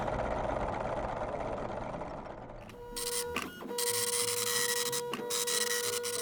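A printer, set going by the station manager, prints off the first question: a low mechanical rumble gives way to whirring with steady tones, punctuated by sharp clacks and shuttles of the print head, with no talking.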